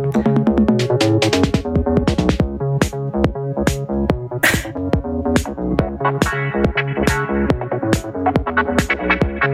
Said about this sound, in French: Voilà, donc ça c'est le son de la TB303.